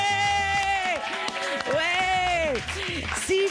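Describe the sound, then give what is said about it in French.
A crowd cheers and whoops loudly, with rising and falling shouted voices over a steady wash of clapping, energetic throughout, an audience at a TSF Jazz live session. “Faites du bruit, s'il vous plaît.”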